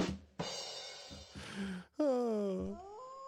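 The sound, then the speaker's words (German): A dog howls in a long, drawn-out tone that wavers and slowly sinks in pitch, loud, after a few shorter rough, breathy whines. “Oh, da ist er wieder. Da ist er wieder. Heul doch, wenn du willst.”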